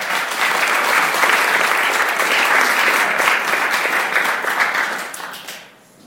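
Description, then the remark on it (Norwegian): A crowd of people applauds together after a prayer, a steady, dense wash of hand claps that holds for several seconds before tapering off quickly at the end. “En applaus.”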